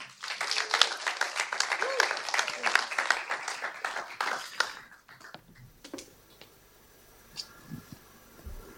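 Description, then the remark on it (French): A church audience applauds a woman after she shares her story, with dense, crackling claps for about five seconds, then the clapping quickly dies away into quiet with a few faint scattered sounds. “on peut l'applaudir.”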